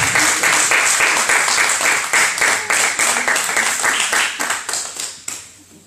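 A crowd applauds steadily, a dense wash of many hands clapping at a strong level before trailing off and fading out near the end. No one speaks over it.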